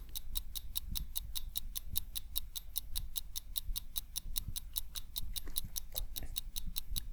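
A clock ticks rapidly and a little unevenly, sharp clicks repeating about four times a second over a low rumbling background, with no one speaking.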